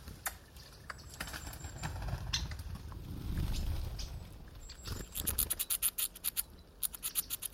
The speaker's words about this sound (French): Vainqueur, l'écureuil ne manque pas de récupérer la noix et de la grignoter en toute impunité.